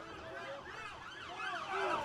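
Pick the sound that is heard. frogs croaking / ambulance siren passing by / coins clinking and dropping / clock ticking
ambulance siren passing by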